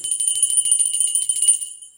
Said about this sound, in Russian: Мне недавно мой маленький сын подарил вот такой колокольчик – и я сегодня решил его взять на проповедь лишь только для одной цели. Я хочу в него вот так вот позвонить и сказать, люди,